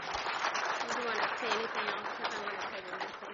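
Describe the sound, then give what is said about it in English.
A church audience gives a clap offering to the Lord after a prayer, clapping steadily for a few seconds, a dense, even patter of many hands, with voices calling out and murmuring underneath. “We can give him a clap offering.”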